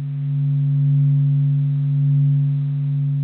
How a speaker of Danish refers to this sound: det er faktisk lyden af selve solen. En lydeffekt, som den amerikanske rumorganisation NASA har lagt online. For ja, så lyder solen altså.